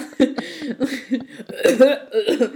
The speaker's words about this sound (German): so richtig auf Mitleid. So, oh, ich bin so krank. Hört man das überhaupt? Pseudo-Huster.